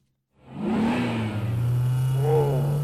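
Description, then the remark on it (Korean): A car engine roars to life after a brief silence, revving hard and pulling away with a steady, rising whine as it accelerates, loud throughout, as a woman drives the car. “아니 무슨 여자가 운전을 이렇게 해?”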